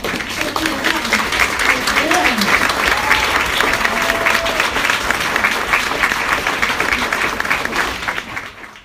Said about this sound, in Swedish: En stor applåd till vår författare